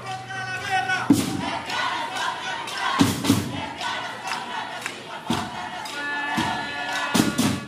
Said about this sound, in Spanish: Eso fue el 9 de enero del 2018 en San José, Costa Rica, y lo que oyen es un grupo de más de 100 personas de la comunidad LGTBI. Están cantando Lesbianas contra la guerra